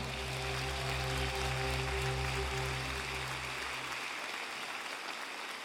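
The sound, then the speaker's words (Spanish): A church audience applauds the Lord in a steady, dense wash of clapping, with sustained low organ-like chords underneath that fade out partway through while the clapping continues. “En el nombre de Jesús, dale un aplauso al Señor.”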